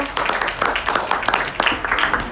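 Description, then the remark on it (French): An audience applauds steadily, a dense patter of many hands clapping at once, fairly loud and sustained throughout with no pauses. “Applaudissements”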